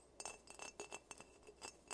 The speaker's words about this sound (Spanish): El sonido era el de un dedo golpeando el vidrio. Otra vez.